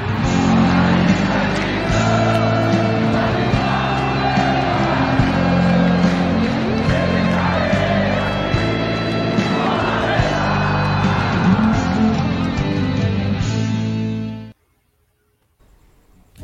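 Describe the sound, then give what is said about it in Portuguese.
A loud, busy intro jingle for a Monday live stream plays for about fourteen seconds, layered with what sounds like crowd cheering and shouts, then cuts off abruptly into silence. “Vou apitar agora a vinheta.”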